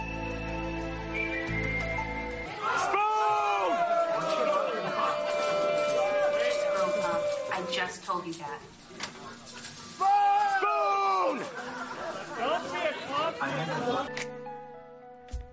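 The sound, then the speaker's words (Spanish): A large cinema audience at a screening shouts and cheers in loud, rowdy bursts, many voices overlapping and rising together, briefly dipping before another wave of chanting and yelling "spoons" swells up, while plastic spoons are thrown at the screen. “mientras que gritan spoons, spoons, lo que acabáis de escuchar”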